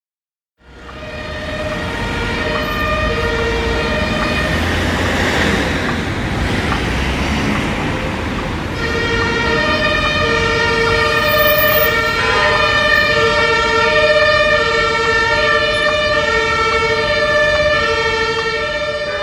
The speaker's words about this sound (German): Straßenlärm. Das kann man eindeutig sagen. Aber wo ist das? Das ist mitten in Berlin. Das ist äh, Wilhelmstraße, Ecke Dorotheenstraße. Das ist eine Ecke in Berlin, wo es eigentlich immer Stau gibt. Da stehen immer Autos rum.